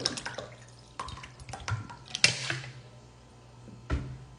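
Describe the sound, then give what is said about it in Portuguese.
Water splashes and trickles into a drinking glass for a few seconds, with irregular bursts, a louder splash near the middle and another near the end. The pouring is moderately loud. “Se eu encher esse copo aqui, ó.”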